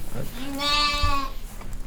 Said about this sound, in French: À ce moment-là, on peut imaginer qu'un auditeur cherche dans la mélodie émise par les différents moutons s'il peut en distinguer un qui donnerait un aperçu plus juste de l'enclos dans lequel il se trouve.